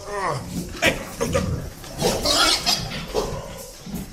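Pigs grunting and snorting close by in a barn, with a short high squeal at the start and irregular bursts of rough, snuffling noise throughout.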